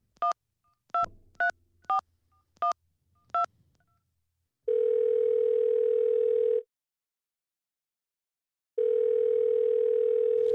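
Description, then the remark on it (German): Six quick touch-tone key beeps, then two long steady ringback tones separated by a pause, like a phone call being placed and ringing, clear with no voices. “wir greifen jetzt einfach mal zum Hörer, Dani, ähm, und Auf rufen geht's. mal an, oder?”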